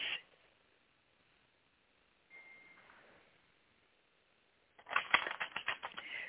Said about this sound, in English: Okay. And I'm going to shuffle the cards.